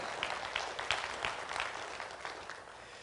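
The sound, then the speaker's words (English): A crowd claps steadily for a few seconds, a dense patter of many hands with no one speaking over it, fairly soft overall, giving a little clap after a speaker's point about what the word of God says. “Give a little clap for that.”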